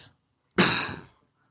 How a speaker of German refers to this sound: Hustest du so viel? Ich denk, du hast aufgehört zu rochen.